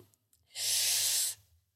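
Loud hiss of gas escaping as a champagne bottle is eased open, lasting under a second with no sharp pop, amid quiet background rustle.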